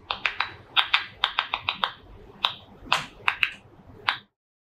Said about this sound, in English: Researchers manipulated the frequency of the sounds recorded so that they could hear them. They shared them in a video on the Tel Aviv University YouTube channel. Let's listen to what tomato plants sounded like.